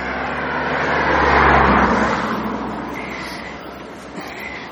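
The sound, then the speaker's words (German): An oncoming car approaches and passes on a road as the speakers swerve to avoid oncoming cars, its broad engine and tire rush swelling to a peak then fading, with steady traffic rumble continuing underneath. “wir mussten gerade mal ein bisschen Autos ausweichen, die uns entgegenkamen.”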